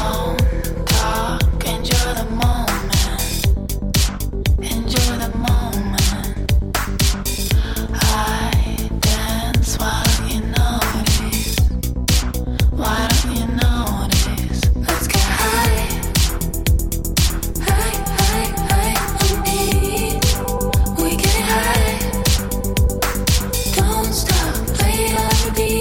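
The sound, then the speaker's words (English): A new song, a remix, plays continuously at a steady, full volume, with a regular driving beat and layered melodic instruments filling the mix; no one talks over it. “So this is a, a new new uh, song”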